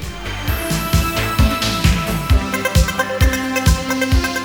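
Upbeat 1980s-style electronic synthesizer instrumental, from about 1985 at the latest, with a steady, punchy drum-machine pulse, bright sustained synth lines and a bouncing bass, played loud with no voices.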